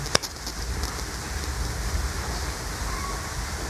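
rain falling

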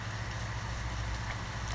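rain falling

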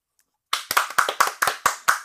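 hands clapping in applause

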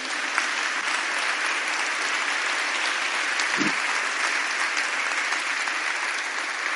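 audience applauding

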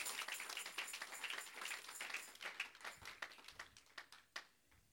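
children applauding

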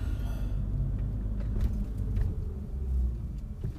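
car driving

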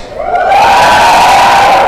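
audience shouting on cue

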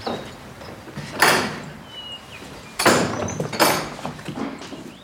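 door being opened

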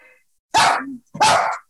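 dog barking

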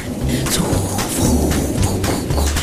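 thunderstorm sound effect

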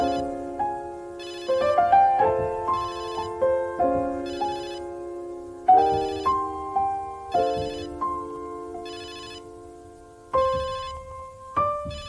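mobile phone ringtone ringing

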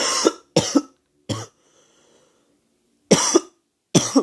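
coughing

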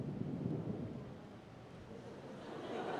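thunder

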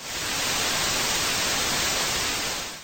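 TV static hiss

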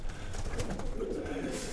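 pigeon cooing

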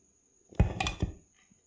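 drinking water

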